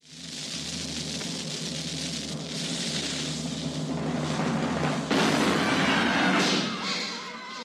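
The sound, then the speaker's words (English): A cannon-firing sound effect: a steady roar of noisy buildup, then a sudden loud blast partway through that rings out and fades, with no talking over it. “Fire the cannon!”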